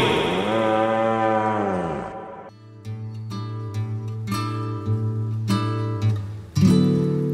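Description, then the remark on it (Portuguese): A single long, loud cow moo with a drawn-out, slightly falling tone, followed immediately by a short musical jingle of sustained notes punctuated by sharp percussive hits. “Ela é safada e ele é boi.”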